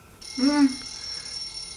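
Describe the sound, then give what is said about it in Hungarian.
A telephone rings once in a short, buzzy electronic burst, clear, with a thin steady high-pitched whine persisting in the background. “Csörög a telefon.”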